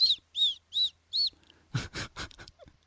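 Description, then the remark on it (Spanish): A voice imitates the whistled S some people make when speaking: four short, high-pitched whistling hisses in an even rhythm, then a few rougher, breathier hiss bursts, all fairly loud. “La gente que hace heces silbadas.”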